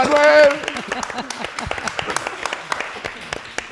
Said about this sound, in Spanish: Aplausos